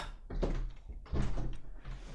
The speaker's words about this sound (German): Okay, warte ganz kurz. Ich mache mal ganz kurz die Tür auf, ja?